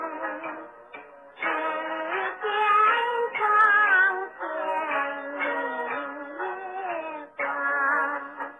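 A 1930s Chinese pop song recording: a steady sung melody with gentle vibrato over light accompaniment, sounding thin and muffled like an old record, playing throughout without talk.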